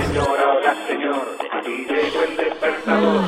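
An alarm clock goes off with a tinny, narrow, radio-like sound, steady and fairly loud throughout, with shifting tones and no clear pauses.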